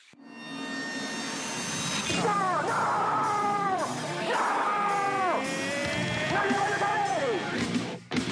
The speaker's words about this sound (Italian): Allora, questa sigla ve la faccio sentire, però devo staccare le cuffie perché altrimenti non, non si può sentire.